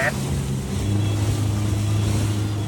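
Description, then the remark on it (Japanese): The motor of a small, open-topped, flat-bottomed ten-person Japanese wasen boat of Nyagoshi Cruise runs steadily at fair speed, a continuous low droning hum with rushing wind and water noise layered over it for the whole stretch. “10人乗りの小型な船なんですねでモーターボートのようにこう上はオープンになっていて結構スピードも出るんですけれど”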